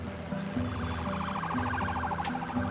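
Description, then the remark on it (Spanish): Wailing ambulance sirens sweep up and down continuously with a rapid warbling pattern against a steady low rumble of traffic, moderately loud with no talking, just after an earthquake. “Y lo primero que escuché fueron los sonidos de las ambulancias, de los helicópteros”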